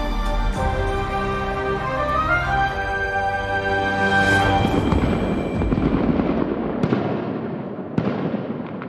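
The Secrets d'Histoire TV theme music plays briefly, then gives way to dense crackling fireworks, a continuous sizzle of pops with a couple of sharper, louder bangs near the end.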